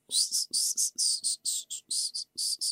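A person makes a series of short, sharp hissing bursts with the tongue, about a dozen in quick paired rhythm, fairly loud, sounding almost like chirping insects.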